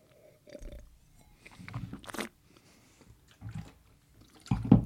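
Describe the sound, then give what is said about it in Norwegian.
Wet mouth sounds of a still, dry wine being sipped, swished and gurgled during a tasting, with a few short slurps and a louder splashy spit at the end. No talking. “Beklager lydene av spytting og gurgling.”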